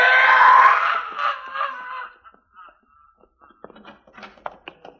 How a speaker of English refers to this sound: And then the lane came to life. It seemed like they were all released by that scream.